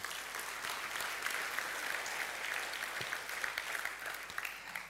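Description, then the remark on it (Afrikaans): Sustained applause from a sizable audience thanking the people who set out the chairs, a dense steady wash of many hands clapping at once with no pauses, fairly loud and continuous throughout. “Geef hulle lekker hande klap toe.”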